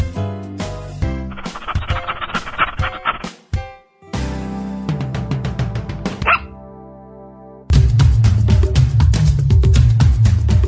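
Rapid bursts of dog barks and yips come in quick rhythmic runs, loud and close, broken by a brief pause before a final dense stretch of barking. No one speaks.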